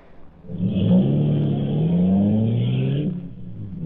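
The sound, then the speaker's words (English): A car engine revs loudly, its pitch climbing steadily as the car accelerates and drives off, the roar easing near the end, in The Green Hornet radio drama. “A few minutes later, Britt returned to the car where Cato was waiting.”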